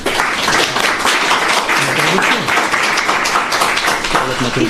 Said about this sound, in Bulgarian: Аплодисменти за него, деца!